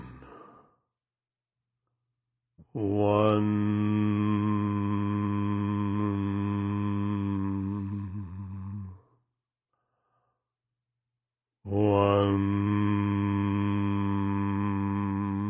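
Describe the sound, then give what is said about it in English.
A single voice chants the word "one" as a stress-relief mantra, one long, steady, resonant syllable for about six seconds, pauses in silence, then begins the same drawn-out chant again, loud. “So, when you reach the count of one, just simply keep repeating the one and then turn it into a mantra uh, like this one.”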